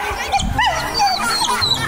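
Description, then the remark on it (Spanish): A dog yelps repeatedly in short, high-pitched cries that rise and fall quickly, moderately loud, with some low background noise underneath. “parece que tus niñas están, pero muy entretenidas con los perritos.”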